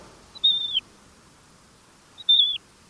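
A Magellanic plover gives two clear, high whistled calls about two seconds apart, each a short drawn-out note with a slight downward end, over a faint background hush.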